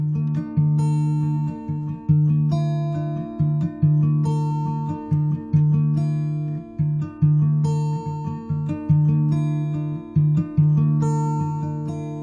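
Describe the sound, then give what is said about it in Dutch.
A short instrumental outro tune of sustained, organ-like electronic tones, with notes shifting every second or so in a steady, gentle rhythm, played alone at moderate volume with no voices. “En, en, en geniet nog even van het komende muziekje.”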